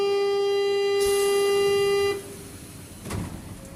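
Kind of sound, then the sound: vehicle, train horn sounding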